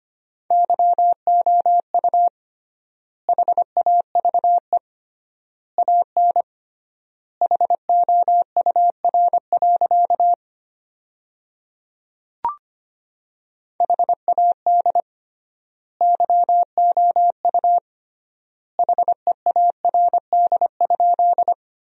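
A steady, fairly high beeping tone keyed in quick dots and dashes at 25 words per minute, spelling sentences built from the 400 most common words, with triple-length pauses between words and one brief click midway. No voices are heard.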